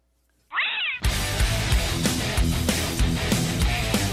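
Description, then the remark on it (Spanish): A single short meow from a black cat in an NFL American football stadium rises and falls, then loud, thumping music with a steady beat abruptly takes over and continues to the end. “En un estadio de fútbol americano de la NFL que de repente aparezca un gato.”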